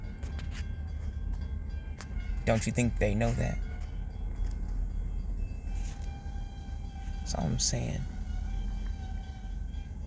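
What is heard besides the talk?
train passing by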